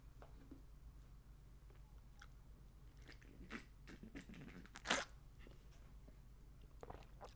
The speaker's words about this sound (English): Quick sip of coffee, boss. Don't mind me, boss.